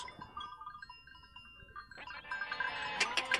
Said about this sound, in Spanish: Era solo un pastor. Un pastor que tenía un rebaño de 40 ovejas.